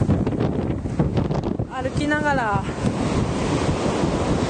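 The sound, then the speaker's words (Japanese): A wave rushes up the shore, a loud, continuous hiss of surf and churning water mixed with wind buffeting the microphone, while a person briefly speaks partway through. “お波が来た”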